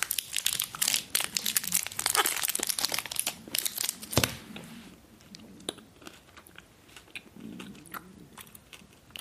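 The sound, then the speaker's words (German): Crinkling of the foil wrapper of a Toblerone chocolate bar, loud and busy for several seconds, then a sharp snap followed by quieter chewing and crunching of the chocolate. No one speaks. “Tut mir leid, ich muss die Schokolade kurz essen.”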